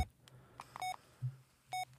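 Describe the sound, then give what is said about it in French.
A hospital monitor beeps steadily, short electronic tones about once a second, over a low machine hum and faint room noise, with no talking. “Inspire, expire, inspire, expire, comme ces putains de machines. Ces trucs de merde qui font bip bip.”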